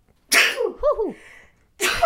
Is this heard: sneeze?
yes